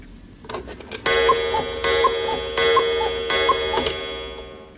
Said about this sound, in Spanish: El ruido proviene de un reloj de cuco. El cuco no ha salido.